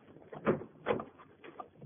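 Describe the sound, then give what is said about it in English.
Two sharp mechanical clunks a moment apart, then a softer knock, as a door to another room is unlocked and pulled open for someone locked in by mistake. No one speaks. “Will you open the door, please? I'm locked in by mistake.”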